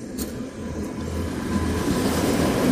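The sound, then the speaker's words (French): An old Soviet-style metal tram rumbles past on a street in Krasnodar, a steady low mechanical roar that swells, with faint rattling and a brief high squeal near the start, no voices. “C'est vraiment un petit tramway à l'ancienne en métal à euh, la mode soviétique, ceux que, ceux que j'adore, ils sont vraiment...”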